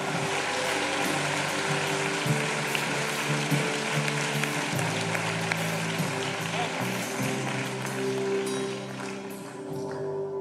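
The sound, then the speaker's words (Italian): An audience applauds God steadily for about ten seconds, a dense, loud wash of clapping with sharp crackles throughout, over a low sustained hum. “Facciamo un applauso al nostro Dio, facciamo un applauso al nostro Re.”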